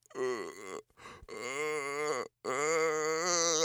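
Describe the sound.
A voice imitates the strained, choked groan of someone trying to scream in their sleep: three tense, droning moans broken by short gaps, loud and rising slightly in pitch at the end.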